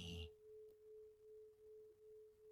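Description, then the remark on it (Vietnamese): A meditation bell is struck once, then its pure, steady tone hums on with slow wavering pulses, lingering softly and fading gently with no other sounds around it. “tiếp tục để cho tiếng chuông ngừng vang”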